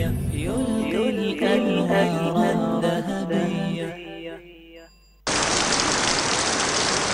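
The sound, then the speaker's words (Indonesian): A short musical jingle fades away, then a steady, dense hiss of falling rain cuts in abruptly, loud, filling the final couple of seconds. “hujan. Itulah yang terpikirkan ketika mendengar kata payung.”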